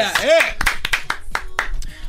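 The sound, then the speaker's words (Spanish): A handful of scattered, irregular hand claps in a studio, a brief smattering of applause for Usain Bolt rather than a full ovation, mixed with voices and a rising vocal sound at the start. “Allá un aplauso para Usain eh.”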